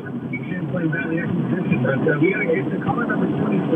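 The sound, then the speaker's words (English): Muffled, narrow-sounding phone-line audio from a radio call-in caller in a car, calling from Milton, carrying a steady, loud rumble of the car interior, with indistinct voices murmuring underneath throughout. “This is weird because it sounds like Hello? they're in a car.”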